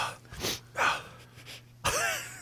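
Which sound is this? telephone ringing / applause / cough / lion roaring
cough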